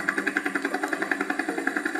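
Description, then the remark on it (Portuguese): Helicopter engines drone steadily with a fast, regular pulsing chop, a continuous mechanical rumble that stays even and moderately loud throughout, with no voices; the helicopters, lights on, fly through the night to England carrying a giant. “os helicópteros acenderam as luzes para poder acompanhar o gigante que galopava lá no alto.”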